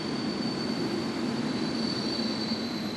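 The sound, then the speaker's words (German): Steady rumble of rail cars at a train station in Hamburg, with a thin high-pitched wheel squeal running continuously over the constant low roar; no voices stand out. “Mehrmals übernehme ich am Hamburger Bahnhof Schichten.”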